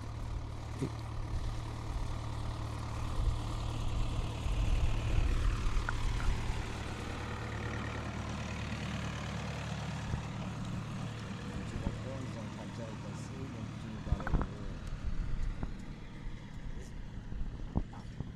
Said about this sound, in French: après un passage de tracteur un petit peu bruyant.